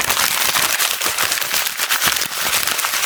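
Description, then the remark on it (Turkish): Dense, continuous crackling of a sheet of paper being crumpled and rubbed, a loud rushing patter that imitates heavy rain, with brief sharper crinkles throughout and no speech. “şiddetli bir yağmur. Böyle bir masal kurdum ben bir kağıtla beraber.”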